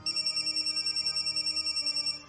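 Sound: mobile phone ringtone ringing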